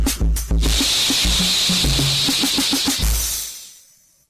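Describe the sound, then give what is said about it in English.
A voice makes a long, steady hissing 'S' sound like a snake, sounding out the letter S, held for about three seconds over soft low thumps before fading out. “S is for snake. S, S, S.”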